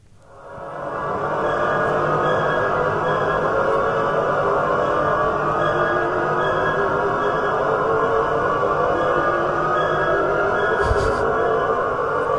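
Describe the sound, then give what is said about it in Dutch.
A Shepard tone: a dense stack of layered tones that seems to climb endlessly without ever getting higher, fading in over the first second and then holding steady and loud throughout, with no voices. “Ook weer horrorfilm, maar het is een toon, als je goed luistert, die de illusie wekt dat hij de hele tijd naar boven blijft gaan.”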